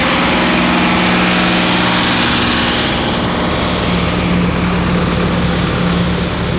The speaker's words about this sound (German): Schneemann vorne drauf hat einen Schneeflug. Das ist auch lustig. Der hört sich an, als wenn ihm gleich das Getriebe rausfällt.